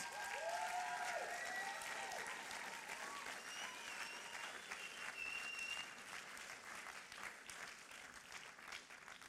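An audience applauds steadily, a dense wash of clapping with a few cheers and whistles rising above it, staying loud throughout before easing slightly toward the end.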